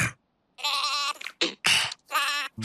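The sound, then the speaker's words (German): A sheep bleats loudly, a long wavering call followed by a short one and two more quavering bleats in quick succession, with no one talking. “Hallo Schaf. Möchtest du vielleicht Auffressen mit dem Krokodil spielen? Hm, das Schaf will auch nicht mitspielen.”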